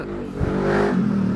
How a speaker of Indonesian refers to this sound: oh itu iklan iklan, itu iklan itu suara pot itu kalau tidak ada suara pot anak kayak tidak asik ngepodcast iya. tidak ada kayak tidak ada apa ya ambience itu kalau tidak ada pot hambar hambar gitu.